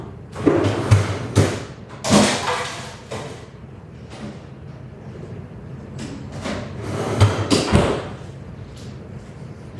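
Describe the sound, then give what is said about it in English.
A container is shuffled and set down at the very back of a freezer to chill, with a few dull thumps and clatters, then the freezer door shuts with a muffled thud, followed by low rustling and another bump. “so one second i'm going to put this in my freezer chill this down.”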